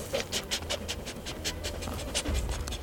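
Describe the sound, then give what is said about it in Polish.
A search-and-rescue dog, Brutus, pants quickly and steadily while tracking a scent on a blue trail toward Karłów, short breathy huffs repeating in a fast, even rhythm over a low background rumble, with no one talking. “Około godziny 14 pies łapie trop.”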